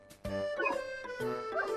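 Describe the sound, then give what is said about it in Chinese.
A small puppy yaps three or four times in quick succession as it bounds toward a girl, carrying her schoolbag in its mouth, its barks bright and high-pitched, with no one talking. “忽然呢，小狗蹦蹦跳跳的朝罗莎跑过来，它还叼来了罗莎的书包。”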